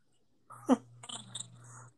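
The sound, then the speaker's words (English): A voice imitates a spinning wheel: a sharp breathy burst, then a steady low whirring hum with a few clicking ticks and hiss, lasting under two seconds. “You do a spinning wheel then, big dog”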